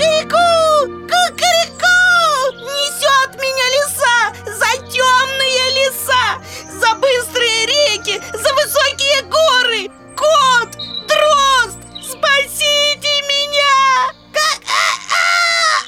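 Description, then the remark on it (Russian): A high, strained voice imitates a rooster's crowing, rising and falling in long wavering cries repeated over several seconds, with brief pauses between the calls. “Лиса схватила его в когти и понесла в свою нору А петушок криком кричит ку”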